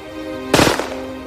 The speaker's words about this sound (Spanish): Usando un arma trucada, Smith apuntó y apretó el gatillo.